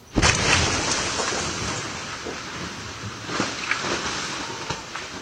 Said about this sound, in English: A security camera has captured a terrifying home explosion in California that injured several people.